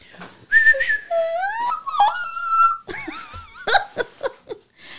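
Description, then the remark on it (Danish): A voice imitates a little girl's piercing high scream in a train carriage that sounds like the train whistle: shrill, sustained tones with rising and sliding pitch, followed by choppy bursts and breathy laughter. “og det der barn har faktisk et mega højt skrig, så nogle gange så var det sådan, hvor man troede, det var fløjten, der lød sådan.”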